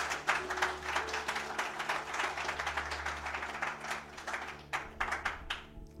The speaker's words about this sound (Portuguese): Vamos aplaudir Jesus!